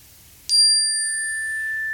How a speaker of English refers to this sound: We're going to start with three cleansing chimes.